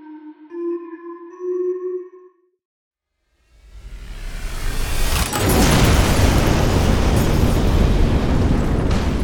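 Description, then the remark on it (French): A huge explosion tears through a hangar: after a steady harmonic tone and a short silence, a low rumble builds, then a loud blast bursts out and becomes a sustained, roaring wall of noise. “Une gigantesque déflagration déchire soudain le hangar.”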